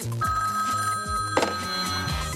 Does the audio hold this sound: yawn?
no